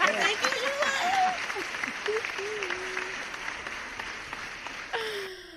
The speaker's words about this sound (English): Can we get hand claps? Do you guys have applause? Ah, thank you.